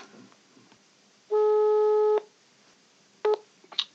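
A phone's outgoing ringing tone on a weekly Friday call: one steady, buzzy beep lasting about a second, then a short clipped blip and a few faint clicks, with no one talking.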